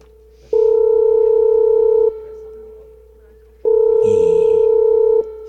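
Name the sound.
telephone dial tone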